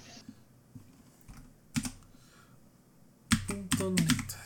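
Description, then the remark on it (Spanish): Clacky mechanical keyboard typing on a PC while entering a website address: a few scattered keystrokes, then a fast, louder burst of clicks near the end, with a voice talking briefly over it. “Mi teclado es mecánico, por eso es un montón”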